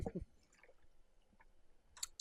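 A person takes a sip of water, with soft wet mouth clicks and a quiet swallow, then a brief louder smack near the end. No talking.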